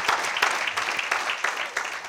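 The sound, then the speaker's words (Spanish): A church audience applauds together during a sermon, giving the Lord a round of applause, a dense, steady wash of many hands clapping with bright crackling texture and slight pulsing swells throughout, no voices standing out. “Démosle al Señor un aplauso hoy.”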